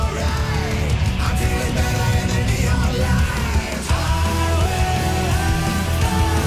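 A loud, dense rock song with a driving full-band mix and a powerful male voice singing over it, sustained without pause from start to finish.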